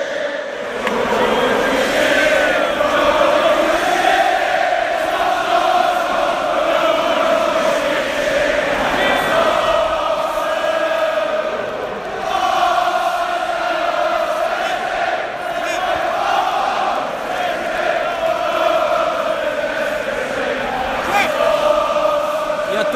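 A big crowd of Arsenal football fans sings a drawn-out chant together in a stadium at the end of the match, bidding farewell to the team with the words "Arsenal FC, we're the greatest team the world has ever seen"; their massed voices hold a steady, loud melodic drone throughout without a break.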